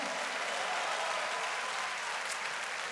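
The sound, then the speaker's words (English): An audience claps their hands in a dense, steady wash of applause, many overlapping claps blending into a continuous crackle at an even, loud level for the whole stretch, with no voices standing out. “Somebody ought to clap their hands and say, Praise the Lord.”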